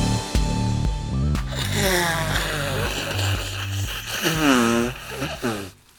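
Someone blows their nose into a tissue, a loud, drawn-out honking blast with a wavering, buzzy pitch, breaking into a few surges before trailing off.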